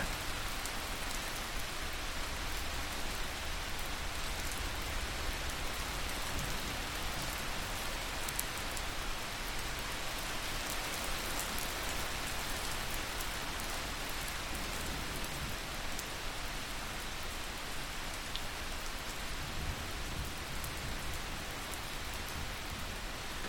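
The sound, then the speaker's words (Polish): Steady rain falls without pause, a soft, even hiss of countless drops pattering on a surface, heard from far away with no voices or other sounds. “Wsłuchaj się w otulające dźwięki deszczu, który jest gdzieś daleko od ciebie.”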